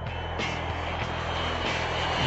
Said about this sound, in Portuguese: Vamos pegar o nosso avião da Poliesportiva.